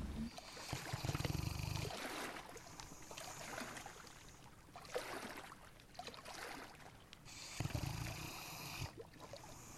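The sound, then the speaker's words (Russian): Water waves lap and slosh against a granite embankment in a city at night, a steady wash with heavier rumbling surges near the start and again near the end, no voices. “Сонный храп собаки и шум волн гранит успокаивает и умиротворяет.”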